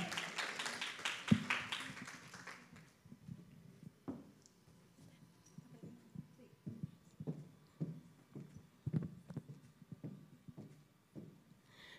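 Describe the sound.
An audience breaks into a short round of applause for a woman about to share her testimony, which quickly dies away, leaving a few scattered claps and taps along with quiet voices.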